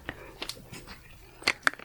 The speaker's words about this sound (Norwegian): Jeg vil gjerne at du tar på deg hanskene sånn helt på slutten, for jeg vil gjerne høre den lyden en gang til